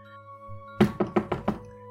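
Five firm, rapid knocks on a door by police, evenly spaced, ringing out loudly over a faint steady hum after a brief quiet pause.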